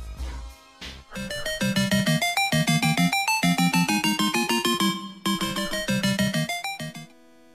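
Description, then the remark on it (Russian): A short, bright musical transition jingle of quick, bouncy synth notes over a steady pulsing beat plays loud and upfront for about seven seconds, then stops abruptly. There is no talking. “я попрошу сейчас Вильгельма поставить нашу забивочку”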